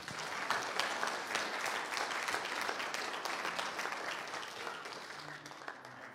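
A crowd applauds steadily for several seconds to welcome a guest pastor as he comes up, many hands clapping in a dense, even roar that tapers slightly toward the end, with no one speaking over it.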